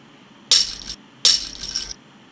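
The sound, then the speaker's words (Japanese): Toy blocks are tossed into a bottle lid twice, each toss a bright, rattling clatter lasting under a second, with quiet gaps between. “これは瓶の蓋の中にさらに積み木を投げ入れた音ですね”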